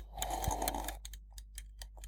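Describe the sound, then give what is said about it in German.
A mechanical egg timer is wound to exactly two minutes with a quick, dense burst of ratcheting clicks for about a second, then settles into a steady run of light, sharp ticks. “So, und ich stelle jetzt die Eieruhr”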